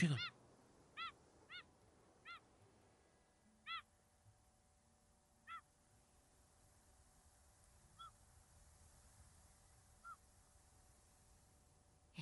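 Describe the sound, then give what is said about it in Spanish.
A series of sharp, harmonic calls of grey gulls repeats at irregular intervals over a low, steady background rumble, starting loud, then growing fainter and more spaced out, heard as land draws near from the sea. “Te invito a escuchar estos pajaritos.”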